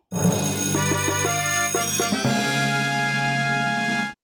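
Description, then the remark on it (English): A loud bell rings out with bright shimmering overtones, struck a few times in quick succession and left to sustain for about four seconds before cutting off. No voices. “But one thing we did get stats ring the bell.”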